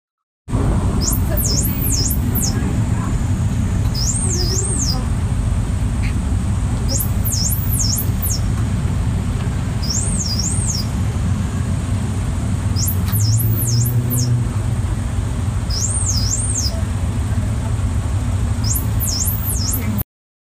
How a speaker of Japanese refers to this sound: これは若者を撃退するためのモスキート音です。